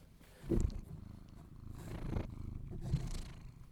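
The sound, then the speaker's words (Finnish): A cat purrs contentedly in a person's lap, a steady low rumbling throb that swells in slow rhythmic pulses, soft and continuous with no voices. “Kyllä, kissa Boris on tässä sylissä”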